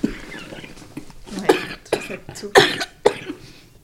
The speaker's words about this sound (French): Mais ça m'essouffle chaque fois. Chaque fois, je tousse, ça m'essouffle. Et c'est fatigant, c'est ça qui me fatigue aussi.